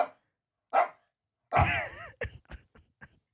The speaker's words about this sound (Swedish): Nu börjar min hund skälla.